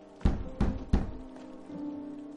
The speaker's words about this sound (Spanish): Jonah llama a la puerta.